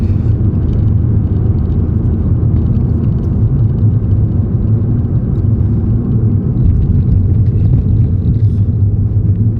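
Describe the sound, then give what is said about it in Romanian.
A car drives steadily along a paved street, its low tire and engine rumble constant for the whole stretch, with no voices. “merge să te ții din urma mașinii pe skateboard. Pe stradă.”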